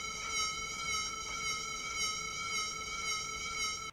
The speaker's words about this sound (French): Prenons un diapason émettant un La. Si cette source s'éloigne et se rapproche du micro d'enregistrement plusieurs fois, voici ce que l'on perçoit.